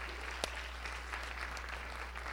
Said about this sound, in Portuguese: Você pode aplaudir o Senhor pela vida deste homem de Deus.